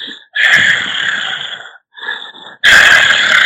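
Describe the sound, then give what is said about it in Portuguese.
A voice imitates a heavy man's ragged, slightly panting breathing as heard in studio recordings: three loud, raspy breaths, a long exhale, a short gasp, then another strong huff, with no talking. “aquela respiração dele assim, é, é, é, é, um pouco ofegante, sabe?”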